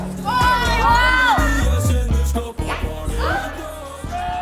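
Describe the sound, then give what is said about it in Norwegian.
Dense Christmas party crowd noise: many overlapping voices chattering loudly, with bursts of laughter and lively babble filling the whole stretch. “Åh, lyden av julebord.”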